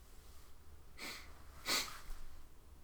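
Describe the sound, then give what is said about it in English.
Two short, breathy sniffles a moment apart, fairly quiet, with the second slightly stronger, and no talking. “And that you've stopped sniffling.”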